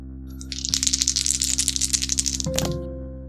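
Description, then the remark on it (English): Four twelve-sided dice rattle and clatter across a hard surface in a quick, dense flurry of clicks, ending with a sharper knock as they settle, rolled to determine damage in a game; fairly loud, with steady low hum beneath. “Um, because you're going to take the best dice out of 4d12 and you're going to add 3 to it.”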